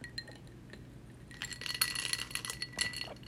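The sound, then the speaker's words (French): Ice cubes clink and rattle against a glass of iced coffee as someone takes a small sip, a quick flurry of bright chinks in the latter half after a near-silent start, with no one speaking. “Comme ça, je peux pouvoir boire mon café glacé.”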